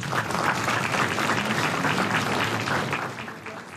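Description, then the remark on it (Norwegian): A full, steady wash of applause from many hands at a meeting, loud and sustained for several seconds before tapering slightly at the end, with no voices over it. “Det var stor applaus som vi hører her.”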